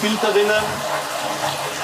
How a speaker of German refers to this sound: Und jetzt wird es lauter, weil hier fließt tatsächlich Wasser. Ja, das ist jetzt hier das Süßwasser, äh, die Süßwasserzisternen,